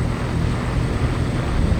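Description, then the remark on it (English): A steady, even engine hum of a solid black 1966 Lamborghini Miura idling after pulling up and stopping, low and constant and smooth, with no changes in pitch or loudness and no voices. “The sound of the engine was smooth and even”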